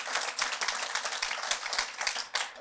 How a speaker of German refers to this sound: Gebt euch mal einen gescheiten Applaus, wirklich.